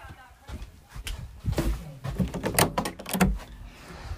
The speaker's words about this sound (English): There you go, it's the sound of my front door.